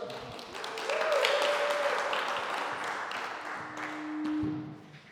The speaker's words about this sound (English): Should we give her a round of applause? Bring it up.